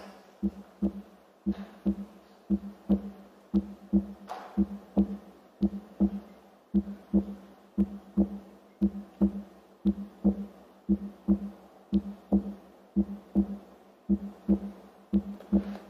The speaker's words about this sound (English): So, can we play what a heartbeat sounds like? Maybe just close your eyes and listen to this.